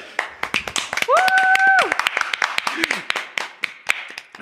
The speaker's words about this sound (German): also dürft ihr da jetzt mal alle, egal wo ihr seid, es spielt absolut keine Rolle, aber ihr gebt jetzt einfach mal einen kräftigen Applaus für Miguel.